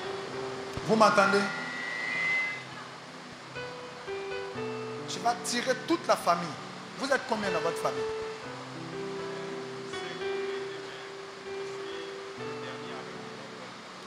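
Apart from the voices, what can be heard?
rain falling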